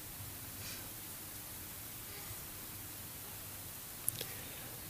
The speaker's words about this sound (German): Und wenn ich mich halt hier hinsetze und einfach mal dieser Ente zuhöre, die Augen zumache, einfach mal jetzt äh, mal merke, wie der Wind hier durch die Blätter rauscht. Man hört es auch im Hintergrund tatsächlich im Mikrofon, ja.